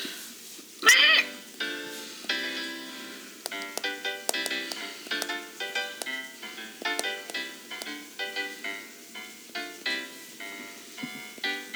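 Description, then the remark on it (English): A bright electronic keyboard synth plays a quick, bouncy run of tinkly notes, jingle-like and evenly paced, with a brief brassy burst near the start; no voices. “What keyboard do I want? No, that's not what I wanted. Ah! Okay, that was a good noise.”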